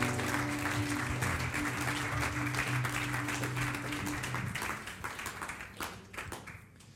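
An audience applauds steadily in a dense wash of clapping, with a low hum underneath; the clapping thins and fades toward the end, leaving scattered individual claps.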